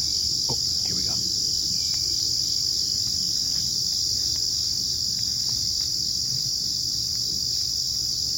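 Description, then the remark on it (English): A dense, steady wall of crickets chirping fills the night air in the woods where a man and his daughter are camping, loud and unbroken, with faint low rustling beneath and no voices. “Why are crickets so scary?”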